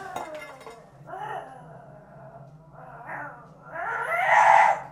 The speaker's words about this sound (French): Tiens, je te pose ton assiette ici, hein